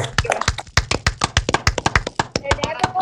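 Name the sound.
hand clapping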